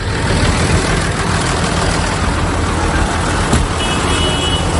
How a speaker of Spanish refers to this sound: Es viernes, es 9 de febrero, un día además con lluvia, con frío pero en esta jornada las tractoradas, desde luego, no han parado. Las tractoradas continúan. Así suena España desde el martes.